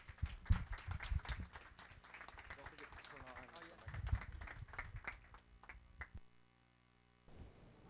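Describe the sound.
An audience applauds for about six seconds, a dense clatter of many hands mixed with voices, before it cuts off into near silence and a faint hum returns.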